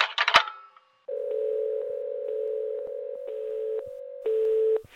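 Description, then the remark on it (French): A handset clatters down, then a steady telephone dial tone hums continuously for about four seconds, growing slightly louder near the end before cutting off. No one speaks. “C'est moi qui raccroche, tu entends On ne raccroche pas au nez d'un empereur.”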